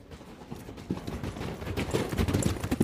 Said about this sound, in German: Es klang wie das Getrappel von Pferdehufen.